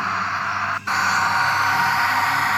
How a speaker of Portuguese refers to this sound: Um secador.